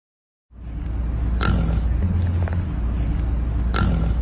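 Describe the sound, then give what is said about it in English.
A chicken thrown into the back seat of a police cruiser lets out two short, harsh squawks a couple of seconds apart, over the steady low rumble of the vehicle interior. “the way he just throws that chicken in the back seat.”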